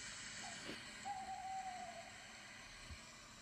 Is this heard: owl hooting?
yes